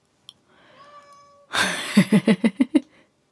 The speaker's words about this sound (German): es ist die Phoebe, die da miaut, weil sie nicht ins Büro darf